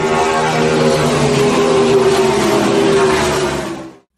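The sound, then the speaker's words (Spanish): A car engine revs loudly and accelerates as first gear is engaged and the accelerator pressed, a steady, dense roar that holds for about four seconds before cutting off abruptly. No one speaks. “Ponemos la primera velocidad. Pisamos el acelerador.”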